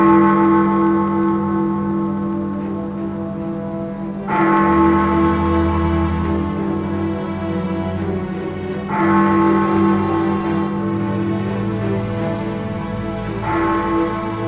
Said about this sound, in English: Quick question. When the clock strikes 12, do I get a little kiss?